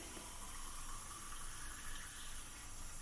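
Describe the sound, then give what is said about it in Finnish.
A steady stream of tap water runs continuously from a kitchen tap into a glass, an even hiss and splash with no pauses and no voices. “Tässä on lasia, täällä on hana ja ei muuta kuin hana tuosta päälle.”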